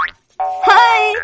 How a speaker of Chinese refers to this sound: 他马上又想到了一个好主意：小猪在自己的脚上绑了两个大弹簧，然后他踩着弹簧一蹦一跳的出门去了。